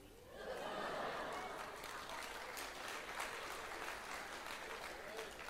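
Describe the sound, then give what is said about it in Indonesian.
An audience breaks into sustained applause, a dense wash of many hands clapping at a steady, fairly loud level that rises quickly and holds for several seconds. “Yang tepuk tangan itu waras.”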